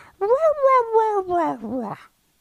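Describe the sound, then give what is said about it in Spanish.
A person imitates their dog's pleading whine when it wants food: one drawn-out, nasal tone of about two seconds that rises, then slowly sinks and wavers at the end. Fairly loud, with no other sounds. “mi perro, él cuando está molesto ladra, normal. Pero él cuando quiere pedir comida, entonces él hace...”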